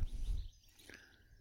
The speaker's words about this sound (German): der Mitte Deutschlands, schaue in ein grandioses Morgenrot, höre die Vögel zwitschern. Das heißt, wenn Sie in diesem Podcast Vögel im Hintergrund hören, gehören die einfach als Stimmung dazu und sie stören nicht. Denn hier stören sie wirklich nicht.